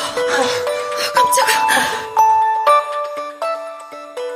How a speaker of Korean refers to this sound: 쩌렁쩌렁 울려 퍼지는 전화벨 소리에 우리는 벼락이라도 맞은 양 소스라치게 놀랐다. 저장되지 않은 번호였다.